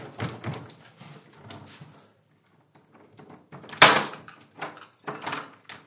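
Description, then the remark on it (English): A locked door is rattled and yanked repeatedly by people trying to get out, handle and frame clattering in uneven bursts, with a sharp loud bang midway as it's tugged hard against the lock. “That door like fucking locked on us.”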